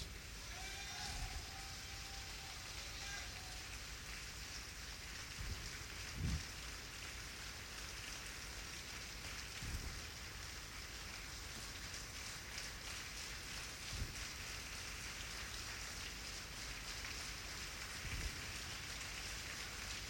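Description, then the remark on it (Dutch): An audience applauds the Lord: dense, steady clapping blends into a continuous rain-like patter for about twenty seconds, fairly soft overall, with a few duller low thumps and no voices. “Laten we de Heer een taferend applaus geven.”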